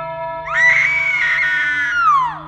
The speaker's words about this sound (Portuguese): Subitamente, ouvi um grito que rompeu a noite e fui à sua procura.